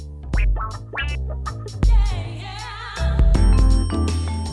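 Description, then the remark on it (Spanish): Loud, busy music of high plinking marimba-like notes scattered in a seemingly random order over a low bass, with a few swooping pitch glides and no voices. “parece estar interpretada por las notas más agudas de una marimba, de una forma medio aleatoria.”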